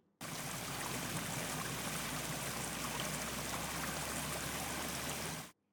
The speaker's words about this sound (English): A rainy day.